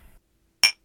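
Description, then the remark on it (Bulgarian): A single bright, crisp clink of glasses touching in a toast, with a short ringing tail that fades quickly into silence. “На здраве, На здраве.”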